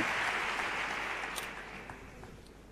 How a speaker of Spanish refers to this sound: decimoprimera ovación para el pregonero.